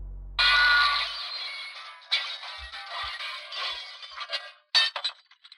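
Glass shatters loudly with a bright crash, followed by a few seconds of tinkling shards settling and scattering, then a couple of final clinks. No talking.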